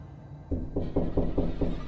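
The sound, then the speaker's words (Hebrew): A quick series of about six firm, evenly spaced knocks on the wooden door of a family's home at night, following a moment of quiet. “פתאום נשמעה דפיקה על הדלת.”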